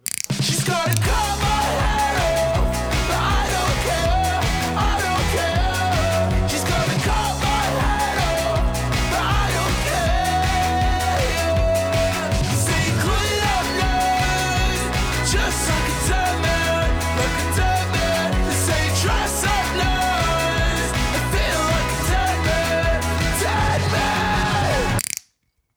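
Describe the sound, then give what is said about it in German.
A loud, dense indie rock song with driving drums, distorted guitars and shouted vocals plays continuously at full volume, then cuts off abruptly at the end. “Das ist halt 1 zu 1 …. Das ist super geil.”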